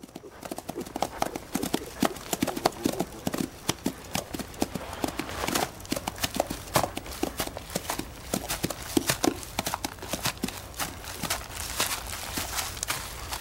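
A horse gallops, its hooves pounding in a fast, loud, steady clatter of sharp beats that continues without pause from start to finish.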